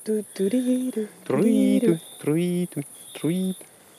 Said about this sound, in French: Et là, on les entend beaucoup plus, les insectes, qui stridulent. Ce qui fait le côté le plus flûté là, c'est le grillon.